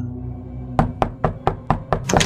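A quick series of about seven sharp knocks on a door, evenly spaced, ending in a slightly busier flurry, over a faint low hum with no voices; a man, Rogelio, knocking at Flavio's door.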